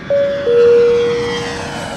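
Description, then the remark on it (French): An airplane's engines roar loudly with a steady, high whine layered over a broad rushing noise, sustained as the aircraft powers up for takeoff. “Prêt pour le décollage.”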